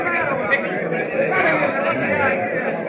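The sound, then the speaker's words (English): A steady crowd murmur of many overlapping voices chattering at once, dense and continuous with no single speaker standing out, holding an even, moderately loud level throughout. The crowd mills at the office of the squadron commander at a naval base as bad news spreads. “Meanwhile, back at the naval base, crowds mill at the office of the squadron commander as the bad news travels like wildfire.”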